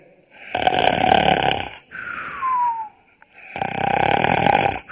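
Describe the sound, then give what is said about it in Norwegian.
A voice imitates a snoring lion with two long, rough, rumbling snores separated by a short whistling exhale, loud with no talking. “Jeg har hørt masse løver snorker, og de snorker akkurat sånn som dette.”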